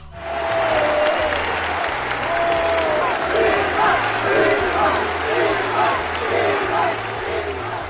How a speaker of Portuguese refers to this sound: Ironicamente, é no campo pequeno, numa corrida de touros, que Vasco Gonçalves sente que Spínola está a ganhar. Para o Presidente da República, aplausos e uma pateada para o primeiro-ministro.